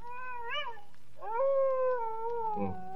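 A dog howls in long, wavering wails: a short rising cry, then a longer sustained howl that slowly falls, ending in a brief rough burst. No one speaks.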